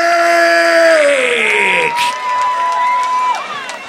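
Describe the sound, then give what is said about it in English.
A loud festival crowd at a 2023 up tempo hardcore party cheers and screams for the DJs about four seconds, with a high falling tone sweeping down midway and a steady whistle-like note ringing over the roar afterward. “make some motherfucking noise for my boys on deck, …!”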